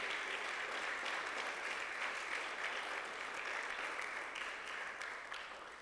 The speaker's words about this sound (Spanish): Dale un aplauso al Señor todavía, pues, hermano amado.